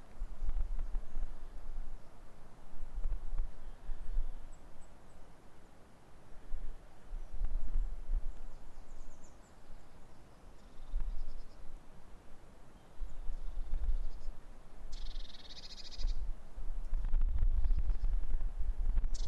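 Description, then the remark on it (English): Faint, scattered birdsong by a loch, mostly buried under steady outdoor wind rumble, with one brighter burst of calls near the end. No one speaks. “I'll just be quiet for a second, you can listen to the, the birds.”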